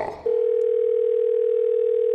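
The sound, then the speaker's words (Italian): A steady, continuous telephone dial tone of a second call to an electrician holds at one pitch after a brief muffled rustle at the start, loud, with no voices over it. “Seconda telefonata all'elettricista”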